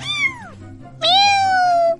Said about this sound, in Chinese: 喵！猫！